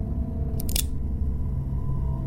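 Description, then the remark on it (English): A gun hammer being cocked back: two or three sharp metallic clicks in quick succession, over a steady low hum, with no voices. “I cocked the hammer back”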